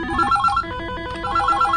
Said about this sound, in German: Stell dir vor, du willst ein Verbrechen gegen die Menschlichkeit organisieren, aber dein Telefon hört einfach nicht auf zu klingen.